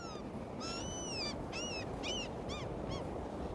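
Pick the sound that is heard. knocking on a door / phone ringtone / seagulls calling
seagulls calling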